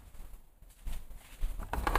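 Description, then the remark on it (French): Soft, steady patter of light rain on a Sunday morning, a dense crackle of tiny drops that grows louder and fuller toward the end, with no voices. “Ouais, une petite pluie.”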